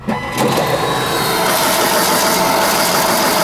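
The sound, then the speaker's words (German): A steady, loud mechanical clatter of a printing press running, with dense rhythmic rattling and a continuous machine hum filling the space, no voices present. “Wie das möglich ist, ganz einfach mit der Druckerpresse. Und wie das Ganze aussieht, sehen Sie hier.”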